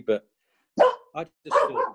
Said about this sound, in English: wow, that, sorry, that's my dog barking.